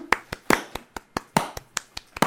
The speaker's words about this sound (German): Hast du ganz, ganz großartig gemacht. Es, es gebührt dir ein Applaus, warte.